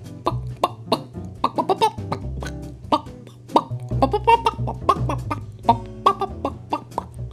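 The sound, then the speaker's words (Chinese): A hen clucks in a quick, uneven series of short, sharp calls, about a dozen or more, over a steady low humming background tone, with no voices. “这时候，母鸡呢，突然间啊发光喽，肚子恢复原状了，竟然复活，跳起来了，还开始叫起声音来。”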